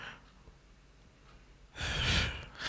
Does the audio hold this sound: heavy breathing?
yes